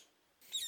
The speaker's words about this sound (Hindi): बिन किसी गाने बजाने के उन दोनों को एक दूसरे से बांध दिया गया जहां पीछे से बस एक तोते की आवाज सुनाई पड़ती थी